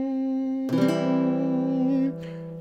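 A single sustained guitar note rings, then a C major chord is strummed over it and held for over a second before being damped. Clear and fairly loud, with no voices.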